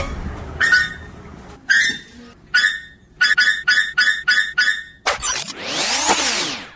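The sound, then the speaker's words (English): A squeaky door in New York City creaks out a string of high, strained squeals, a few spaced ones and then a quick rhythmic run, ending in one long drawn-out groan that rises and falls. No talking. “I'm like, "No, it's just that this, you guys don't notice the squeaky door."”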